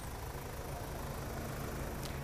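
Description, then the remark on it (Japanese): A car engine idles at the Uji Bridge as someone on foot crosses in front of the car, a steady low rumble that holds at an even level for the whole stretch, with light outdoor background noise and no voices. “ちょっと渡らせてもらいますよはい車をちょっと横切ります”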